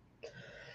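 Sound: cough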